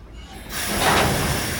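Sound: train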